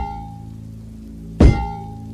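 A single hard metallic strike of someone hitting a train's lock with a hammer or rod, at a good distance along a long train at night in the rain, rings out once and fades quickly over a low, steady mechanical hum. No one speaks.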